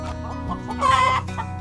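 A hen clucks in a run of short, throaty notes, swelling into a louder, drawn-out squawk midway before settling back to softer clucks. No one speaks.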